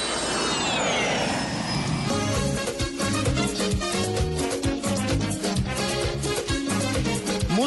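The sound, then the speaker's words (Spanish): A jet airplane taking off roars with a high whine that sweeps downward for about two seconds, on a flight to the Dominican Republic, then gives way to lively music with a steady, driving beat. No one speaks. “Listo, cogemos un segundo avión a ver dónde aterrizamos.”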